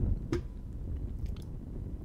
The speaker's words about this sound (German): Ja, hier ist ein kleines Feuerchen. Was ein bisschen rumrohrt. Und wo es, ich hoffe, es ist jetzt von der Lautstärke her angenehm.